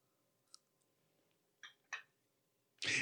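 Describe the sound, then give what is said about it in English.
Faint chewing of a meatball by a woman leaning back from the microphone, with a few soft, sparse mouth clicks and crunches separated by quiet pauses, ending in a brief louder rustling burst; no one speaks. “is very careful to lean back from the microphone as she chews because she knows that we have so many listeners who deal with the misophonia thing, the hatred of chewing sounds.”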